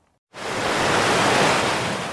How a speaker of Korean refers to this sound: 음, 파도 소리 들으니까 아, 진짜 바다 앞에 와 있는 것처럼 기분이 싹 좋아지네요.